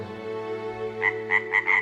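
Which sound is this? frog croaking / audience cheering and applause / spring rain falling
frog croaking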